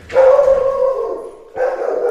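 A dog barks in two drawn-out, tonal, almost whining calls, the first long and the second shorter after a brief gap, loud and alone with no talking.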